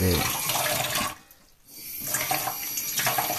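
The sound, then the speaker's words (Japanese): Water runs steadily from a tap into a washbasin, a broad hissing splash that briefly dips quieter in the middle before the flow returns at full strength. “ちょっと今夜遅いんで手がちょっと叩けないんであの今からあの洗面器に水を洗面器に水を張るんで”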